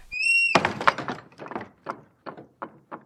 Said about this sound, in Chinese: 皮皮赶忙跑去开门。